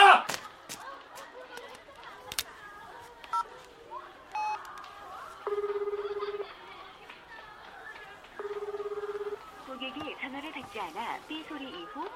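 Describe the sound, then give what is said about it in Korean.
A telephone rings on the line with two long, steady, low-pitched buzzing tones about a second each, separated by a pause, over faint background chatter and voices. “전화 좀 받지.”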